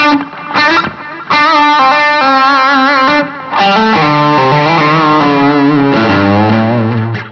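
A loud, distorted electric guitar plays sustained, bending lead notes through a very short, doubler-like delay setting called "dual" that thickens each phrase, with brief pauses between lines and no voices.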